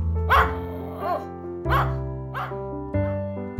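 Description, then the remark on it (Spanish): A small fox terrier barks sharply about four times in short, uneven bursts, with a steady musical hum running underneath. “Es un buen guardián que te avisará de cualquier movimiento extraño. Son bastante ladradores.”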